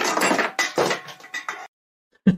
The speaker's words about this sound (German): so er bewegt sich und man hört erstmal das Scheppern von deren Dosen